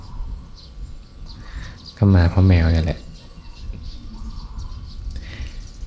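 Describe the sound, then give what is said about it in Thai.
Soft, scattered bird chirps sound in the background throughout, faint and irregular, with a few flies buzzing at times, while a man speaks briefly in the middle over a low ambient hum. “ไม่ได้มีแค่นกนะโยมนะ ได้ฟังเสียงแมลงวันร้องเพลงด้วย แมลงวันก็มา”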